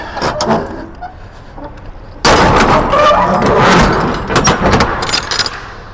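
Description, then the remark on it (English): Heavy doors being shut: a few sharp metallic clanks, then a sudden loud, sustained rattling slam lasting a couple of seconds before easing off, with no talking. “Shut the doors.”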